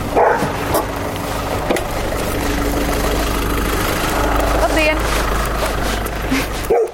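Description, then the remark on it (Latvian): On an autumn morning, a fierce chained dog at an old fieldstone house behind a village farm barks a few times in scattered bursts over a steady rumbling engine idling in the background. “Tā ir padomi laikā celta ferma, blakus sienaruļu novietne, bet aiz saimniecības ir senāka laukakmeņu māja ar niknu suni, kam ķēdes tiepjas līdz pašam ceļam.”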